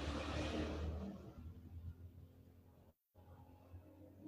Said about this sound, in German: Aha, aber ich habe schon den Jingle abgelassen.